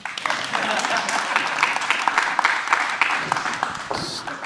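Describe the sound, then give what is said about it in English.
A round of applause from a group, a dense, steady clatter of many hands clapping that carries on for several seconds, with some voices mixed in beneath it. “Give me a round of applause.”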